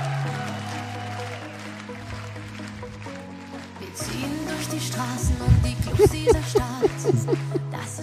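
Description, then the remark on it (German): Computer-generated music plays with no talking: steady, droning synthetic tones at first, then after a few seconds a busier passage of bright, plucky notes that bend and wobble in pitch. “Also ist halt wirklich so komplett Computer generiert.”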